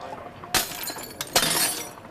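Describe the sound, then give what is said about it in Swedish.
Shop window glass in Åbo (Turku) is smashed by hooligans, shattering in two sharp crashes about a second apart, each burst followed by a bright, ringing spray of falling shards that tinkles on between the impacts. No one speaks. “I Åbo krossade de röda huliganerna butiksfönster och stal allt de kom över.”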